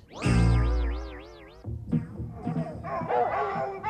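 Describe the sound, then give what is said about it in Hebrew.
A dog lets out a long, wavering howl, then several dogs break into a flurry of overlapping barks and yips. “הכלבים אוהבים... שמעתם.”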